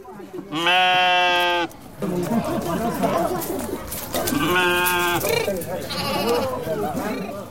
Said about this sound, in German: In den schmalen Gassen zwischen den Gebäuden bahnen sich Schafe den Weg in ihren Stall.